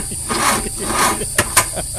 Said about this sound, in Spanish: el carro ya anda como pulmón entabacado. ¿Cómo, maestro? Tosiendo y muriéndose el carro. Míralo, míralo, míralo, No quiere arrancar, maestro. Míralo. No quiere prender,